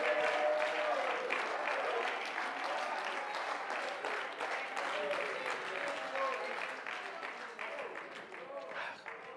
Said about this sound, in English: Oh, clap your hands one more time and praise Him this morning.